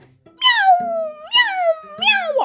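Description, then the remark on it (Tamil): A person mimics a cat with three drawn-out, wavering meows in quick succession, fairly loud, each sliding in pitch, with no other sounds around them. “எப்பவும் போன சொன்னபடி இந்த பூனை”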